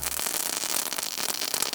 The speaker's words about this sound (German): Oh, oh guck mal hier, ich habe auch noch ein paar Böller. Und die Böller mag ich gar nicht. Na, wieso denn nicht? Hier, guck doch mal.